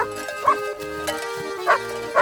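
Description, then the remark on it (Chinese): Shirley, a sheepdog kept on a ranch to help the herder guard cattle and sheep, barks three or four times in short, sharp bursts, spaced unevenly over steady background music, with no one talking. “哦，雪莉是牧场养的一只牧羊犬，专门在帮助牧童看守牛羊。”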